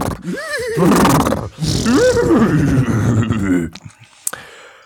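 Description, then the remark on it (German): A loud horse whinny rises and wavers in pitch over several seconds, then breaks off into a few short snorts and clicks. “Wieha, wieha.”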